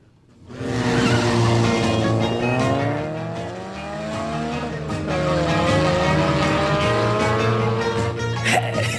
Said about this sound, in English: the sound of this engine, music to my ears. I tell you.